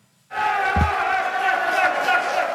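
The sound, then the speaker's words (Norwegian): A crowd bursts into loud cheering and shouting after a brief silence, a sustained roar of many voices with a low thump early on, continuing steadily to the end, at the Norwegian campaign group Nei til mer bompenger (FNB) election night party, 2019, as results appear on a big screen showing NRK's election broadcast. “Jubel på valgvaken til folkeaksjonen Nei til mer bompenger, FNB, valgnatten 2019.”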